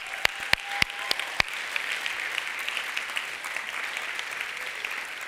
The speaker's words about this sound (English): Give him applause.